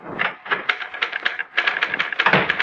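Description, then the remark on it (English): A typewriter clatters, keys struck in a quick, uneven stream of sharp clicks on a sheet of paper backed by four carbons, with a brief lull midway before the rapid typing resumes. No one speaks. “Melody was at her typewriter working on the usual sheet of paper backed by the usual four carbons, routine.”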